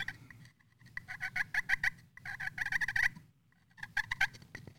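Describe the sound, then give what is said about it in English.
A turkey gobble made with a Phelps turkey call: three rapid, rattling bursts of yelping notes, fairly loud, separated by short pauses, with no voices. “Turkey Calls”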